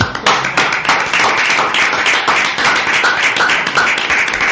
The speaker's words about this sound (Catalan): Molt bé, com sempre, un aplaudiment.